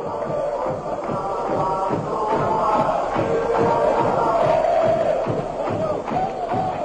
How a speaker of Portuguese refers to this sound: é um registro da torcida palmeirense cantando, batucando e pulando no estádio.